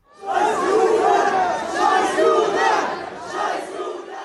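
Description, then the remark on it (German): A large crowd at a pro-Palestinian demonstration in front of a synagogue in Gelsenkirchen chants loudly in unison outdoors, many voices shouting together in a sustained, rhythmic roar that rises and falls over a few seconds. “Es macht sprachlos, wenn man bei einer pro-palästinensischen Demo Folgendes hört, etwa hier vor einer Synagoge in Gelsenkirchen vor ein paar Tagen.”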